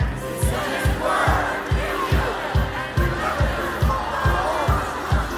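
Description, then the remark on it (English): A large crowd of voices shouts loudly in unison the scripture verse Psalm 107, verse 20, a dense roar of words carried over a steady, regular low thumping beat that pulses about twice a second. “why do you want us to shout? Why do you want us to lift our voice?”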